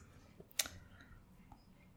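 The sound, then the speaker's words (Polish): A single sharp computer mouse click while clicking through a website's image gallery, with a couple of fainter small ticks before and after it. “Mm, nie wiem, gdzie tu klikać, nie mogę się połapać w tym papierocie.”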